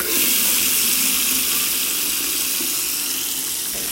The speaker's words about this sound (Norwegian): Det første vi gjør da, er jo å sette på vannet.